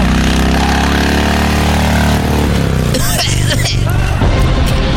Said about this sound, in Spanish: Ahí va a bajar hasta el túnel, ahí se sube a una moto y va, esa moto lo va a llevar hasta la salida